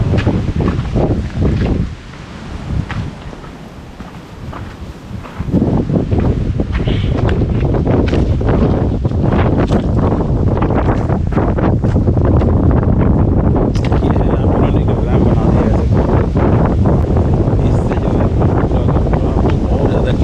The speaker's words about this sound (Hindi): मैं जहाँ पर था पहले वहाँ पर थोड़ा सा कोल्ड था अभी यहाँ पर आया हूँ तो इतना ठंडा है नहीं हवा चल रही है